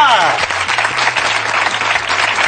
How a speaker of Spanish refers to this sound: ¡Un aplauso